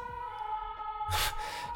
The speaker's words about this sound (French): Hop, il y a les pompiers qui passent.